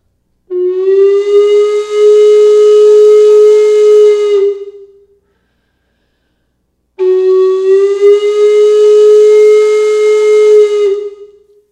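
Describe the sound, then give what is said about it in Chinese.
A wooden train whistle imitates a steam locomotive, sounding two long, loud blasts of about four seconds each, steady in pitch and breathy, separated by a short silence, with no talking. “但它其实也，我们也是在模仿蒸汽火车的声音。”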